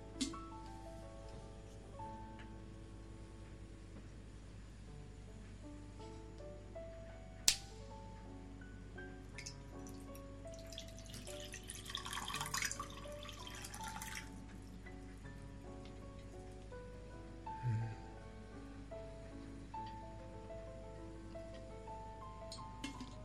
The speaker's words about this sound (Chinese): 来听一下流水的声音。